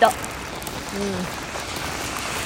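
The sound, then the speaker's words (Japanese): Heavy rain pours down like a waterfall in a steady, dense hiss that fills the whole recording, with a short murmur of a voice briefly audible beneath the downpour, heard while someone takes out the garbage. “でも本当雨すごいよ”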